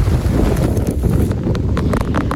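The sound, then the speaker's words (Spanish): A heavy rainstorm in Valencia, Spain, on the late afternoon and evening of 3 May, pours down in a dense, steady roar, with sharp irregular pattering and splashing hits scattered throughout. It stays loud for the whole clip, and no one speaks. “Así sonaba la tormenta en la tarde-noche de ayer.”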